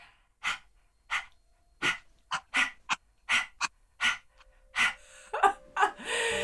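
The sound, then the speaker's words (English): A person does the yogic 'panting dog' breath with tongue out, a dozen or so short, sharp breathy bursts in a steady rhythm, fairly loud, ending with a few quicker gasps. “It's called the panting dog. You're gonna stick your tongue out like this and do doggy breathing.”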